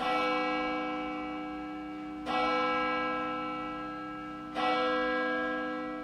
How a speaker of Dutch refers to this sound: wat langer nadenkt over de bijzondere rol die deze bronzen bel honderden jaren lang heeft gespeeld. Onze voorouders konden niet zonder.